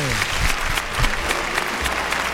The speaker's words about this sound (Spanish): Ya empieza a sonar la ovación. Y la ovación arranca ya en la maestranza. El público puesto en pie. Absolutamente.